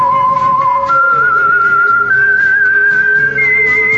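A slow, eerie tune, the theme of the radio show The Whistler, is whistled clearly, with long sustained notes gliding up in steps over a soft low instrumental backing and no talking.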